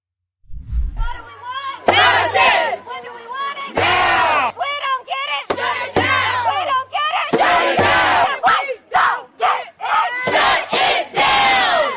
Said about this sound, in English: And here are some of the protesters who are angry at the release of the shooter.